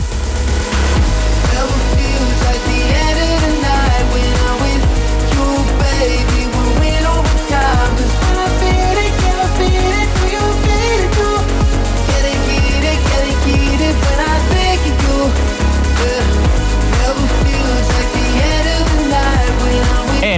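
A loud electronic dance track with a pounding steady beat, deep heavy bass and layered synth melodies, playing continuously at full volume with no voices.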